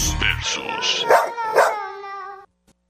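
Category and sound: animal, dog barking and howling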